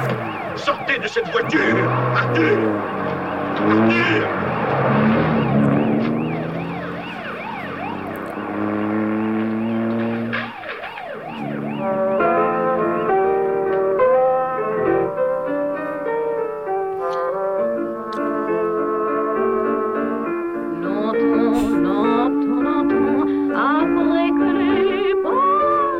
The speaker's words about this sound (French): Et c'est la fin de Les voitures qui ont mangé Paris. Générique.